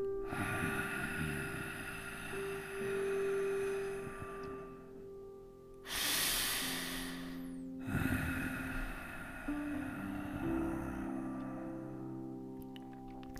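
Slow, audible ujjayi breaths with lengthened exhalations drawn through a narrowed throat, a soft oceanic hiss rising and falling in long cycles, with no talking.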